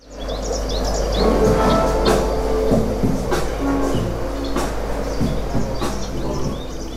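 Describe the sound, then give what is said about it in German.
Birds chirp and tweet over a steady electronic track with a deep, constant bass drone, tonal synth lines and sharp percussive hits, all fairly loud, at a restaurant and workspace in the south of Tel Aviv. “Vogelgezwitscher und Beats.”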